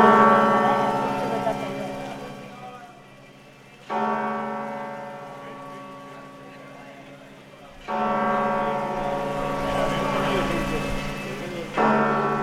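Deep bells of the Cathedral of Santiago toll in slow, heavy strikes about every four seconds, each stroke ringing out with a rich, humming resonance that lingers and fades before the next.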